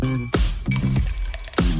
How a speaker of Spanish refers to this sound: Esa hora en la que tirás los primeros hielos.